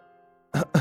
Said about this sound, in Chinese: 金昌平不自然的咳嗽了几声，这才说道。